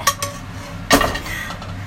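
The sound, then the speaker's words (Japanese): Kitchenware clatter as eggplant stir-fry is shifted from a very heavy frying pan onto a plate: a few sharp metallic clinks and scrapes, one louder knock near the middle, with no talking. “はい出来上がりです盛り付けていきたいと思いますイパンから皿に移すんだけどフライパンがねめっちゃ重たいのこれ”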